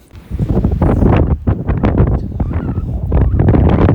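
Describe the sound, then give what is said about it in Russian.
Strong wind on the seashore buffets the microphone nonstop on the last day of a Hamsin, producing a loud rumble with repeated gusty bursts and flutters, with no voices. “сегодня нас подкаст с берега моря, где не скрыться от сильного ветра, от соленых волн”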